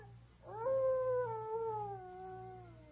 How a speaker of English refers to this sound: That's strange. That howl's coming from the east wing of this cabin, right over there. By George, I'm going to skirt this place and have a look.